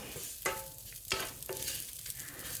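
Oats toasting in a hot pan give a steady crackling sizzle as they turn crisp, with a few sharp scraping clicks of a utensil stirring through them. Fairly quiet, no voices.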